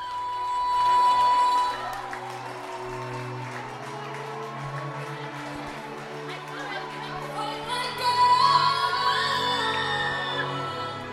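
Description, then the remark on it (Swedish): A large audience cheers, applauds and stands up as a big surprise artist comes on stage: a dense roar of clapping and shouting swells near the start, holds steady, then surges louder again toward the end, with music faintly underneath. “Och eh, där hörde ni att eh, folk, då blev det riktigt jubel.”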